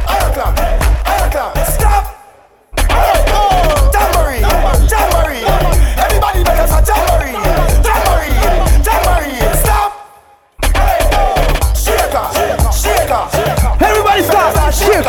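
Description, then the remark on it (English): A group clapping their hands along to a song in a dense, continuous patter with voices mixed in, interrupted by two short silences before the clapping resumes at full strength. “clap, clap. Everybody make a sound. I clap.”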